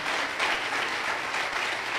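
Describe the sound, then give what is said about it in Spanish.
A steady wash of applause from a crowd clapping for the Lord, dense and even, with sustained clapping filling the whole two seconds and no clear voices over it. “Que alguien aplaude al Señor de la gloria.”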